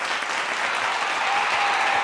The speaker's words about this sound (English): Man, give her a, clapping hands right there. Hit that.